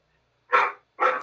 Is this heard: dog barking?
yes